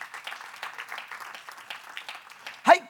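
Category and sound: crowd, audience applauding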